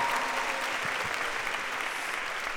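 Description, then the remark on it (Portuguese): An audience claps together in a steady, dense wash of applause that holds at an even loudness for a couple of seconds, with no voices rising above it. “Quem celebrou a missa não foi um padre, mas que esta senhora com o tabuleiro faz, faça uma salva de palmas aqui para o multitasking.”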